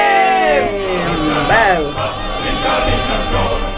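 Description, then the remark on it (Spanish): A shout rings out over loud, dense Russian music, with rising and falling voices layered in a busy, crowd-like mix that stays loud throughout. “Hay un grito de fondo.”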